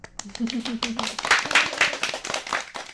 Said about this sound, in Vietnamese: Cho nên là chúng ta có thể dùng một tràng pháo tay để tặng cho tất cả mọi người.